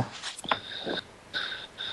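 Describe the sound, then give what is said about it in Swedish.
A dog snoring while lying on the floor, with wheezy, whistling breaths and a few snorting puffs, repeating in a steady rhythm several times over a couple of seconds. “någon som snarkar här så är det min hund när han ligger på golvet.”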